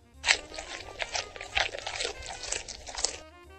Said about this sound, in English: Moving on to how do we eat? First, we would bite, and then we would chew